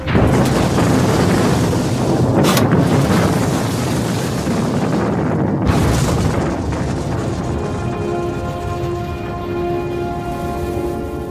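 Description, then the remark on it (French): Dynamite explosions boom through a constant heavy roar as 2 tonnes of dynamite are used to level terrain not far from the German capital. Two sharp blasts stand out a few seconds apart, followed by a lingering rumbling drone. Loud, with no talking. “Ici, non loin de la capitale allemande, on n'utilise pas moins de 2 tonnes de dynamite pour niveler le terrain, déterminant ainsi de formidables explosions.”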